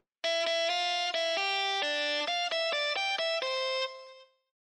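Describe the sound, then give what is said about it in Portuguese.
A short, bright electronic jingle: a quick run of distinct synth notes stepping up and down in a bouncy rhythm, loud, lasting about four seconds before fading out. No voices. “A gente vai comentar é. sobre isso e muito mais depois da vinheta.”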